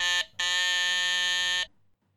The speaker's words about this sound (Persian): زنگ در زدم و با دقت گوش دادم که صدایی از داخل آپارتمان میاد یا نه